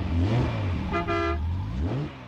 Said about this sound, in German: Ja, ja, so ein Sportwagen kann ganz schön röhren, aber auch mit so einem Flitzer kann man Musik machen. Aber wie? Da gibt es zum Beispiel eine Hupe.